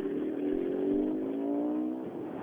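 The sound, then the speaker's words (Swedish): A Peugeot rally car's engine roars by at high revs, its buzzing harmonic whine holding loud and steady before the pitch sags slightly as it passes. No voices are heard. “Och vad åker han för bil? En Peugeot.”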